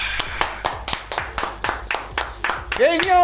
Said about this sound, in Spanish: Aplauso.